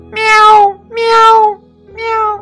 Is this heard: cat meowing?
yes